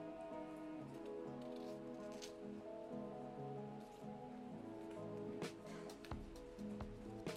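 Soft wet crackling and patting as a nori wrapper soaked in a little water is folded over an onigiri rice ball, with a few sharper taps and a steady low hum underneath.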